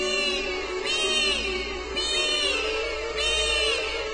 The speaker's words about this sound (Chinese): 啊哦，那好像是角雕的声音，它们一定是醒了。